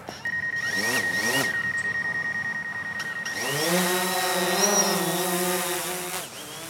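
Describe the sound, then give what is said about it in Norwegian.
A small camera drone's rotors whine up into a steady buzz, the pitch rising and wavering as it lifts off, with a few brief mechanical chirps at the start. “Det høres kanskje ut som en elektrisk håndklipper, men ser mer ut som et bitte lite slagskip fra Star Wars.”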